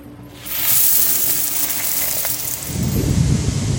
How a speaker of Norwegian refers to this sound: En tung sekk falt straks i havet.